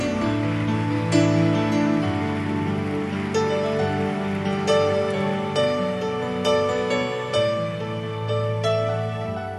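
A church audience applauds God at a morning service in a dense, steady crackle of clapping that continues throughout, mixed with sustained organ-like music chords underneath. No one speaks.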